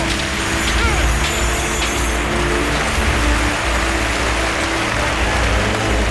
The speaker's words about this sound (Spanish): Arrastran al Miura que ha sido un gran toro. Gran toro de Miura este segundo. Al que arrastran con este pedazo de ovación del público.